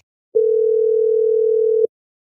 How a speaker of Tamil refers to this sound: நீங்க வேற இப்ப வேற போன் அடிச்சுக்கிட்டு